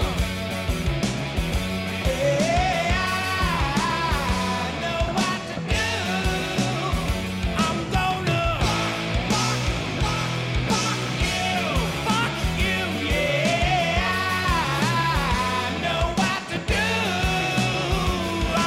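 The original version of a full-band rock song plays loudly and continuously, with sung vocals over steady drums and guitars, dense throughout with no talking over it.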